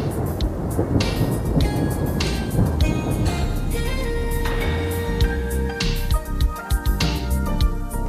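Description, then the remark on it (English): A thunderstorm sound effect used as the theme for the Quiet Storm: a continuous, loud low rumble with a hiss like rain. Sustained tones drift over it like a musical theme. Nobody speaks. “y'all y'all already know that uh, I have a, uh, a, special theme for the uh, Quiet Storm. Hey, I said Quiet Storm. There we go.”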